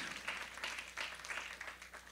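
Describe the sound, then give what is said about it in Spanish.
An audience applauds in the morning as an offering of applause to God, with many hands clapping together, forming a dense, steady patter that swells slightly in a few waves and holds for about two seconds, fairly soft overall with no voices. “Dele una ofrenda de palmas en esta mañana por lo que Dios es.”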